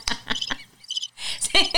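A cricket chirps in short, rhythmic bursts, close and fairly loud, with a brief pause in the middle before the trilling resumes. No one speaks over it.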